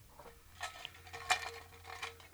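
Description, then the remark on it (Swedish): A jar of paper slips is shaken, giving a few quick rattling, rustling bursts of light clicks and scrapes, fairly quiet, with a low steady hum underneath and no talking. “Men nu ska du få dra en lapp ur min burk. Ja, titta. Är det, jag antar att det är den här som står framför mig. Ja. Skaka den.”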